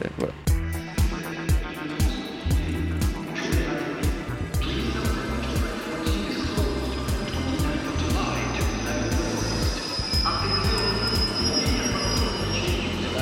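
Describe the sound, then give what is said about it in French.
An RER E commuter train pulls into the platform at Luxembourg station in Paris, captured as ground vibrations converted into sound: rapid wheel clacks over rail joints slow down, then a loud rumble with high-pitched brake squeal as it stops, while voices murmur. “plutôt que de faire l'entrée d'un train en gare, on va faire l'arrivée d'un RER e sur le quai.”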